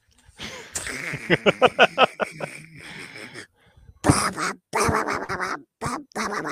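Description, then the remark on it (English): A person imitates a cartoon duck likened to Donald Duck, one that can only mumble, in a raspy, garbled voice: a quick stuttering run of squawks, a short pause, then more loud duck-like gabbling. “It's a nondescript cartoon duck, but yes.”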